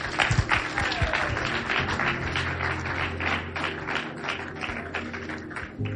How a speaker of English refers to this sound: Oh, clap your hands for God.